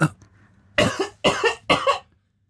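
Someone in a shop coughs three times in quick succession into their elbow, the bursts somewhat muffled, after a brief sharp intake of breath, then silence.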